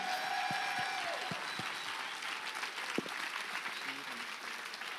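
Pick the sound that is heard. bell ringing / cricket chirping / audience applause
audience applause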